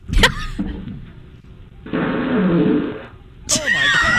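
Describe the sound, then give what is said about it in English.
A replayed recording of a man's wet, sputtering fart in his pants rumbles for about a second in the middle, fairly loud, with brief bursts of voices before and after it. “the end of it definitely had some substance. There was something there.”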